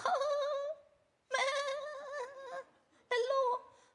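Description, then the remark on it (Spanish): A voice imitates a sheep's bleat three times in a row, each call a loud, wavering, nasal "baa" held for around a second, with short pauses between them and no other sound. “Entonces no puede ser una oveja que dice, lobo,”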